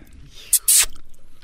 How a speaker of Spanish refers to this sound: Maestro, que se escuche cómo toma agua